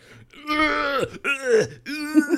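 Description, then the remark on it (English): A man's voice imitates effortful straining grunts, three strained, drawn-out vocal heaves in a row, each rising and falling like someone struggling through a chin-up, fairly loud. “I'd be like, oh, because he is making also a lot of noise. Like a, a, power of grunting going on.”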